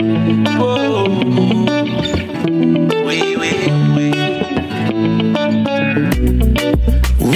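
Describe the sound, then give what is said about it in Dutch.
A live band plays a song loudly and continuously, with effects-heavy, slightly distorted guitar over a deep bass line and steady drums, and heavy low thumps hitting near the end. No one speaks. “het volgende nummer die komt is …. Die hoor je nu live.”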